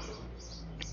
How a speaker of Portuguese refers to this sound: Estou aqui em Cascavel hoje, vocês vão escutar alguns barulhos de carro passando, passarinho cantando, normal, tá?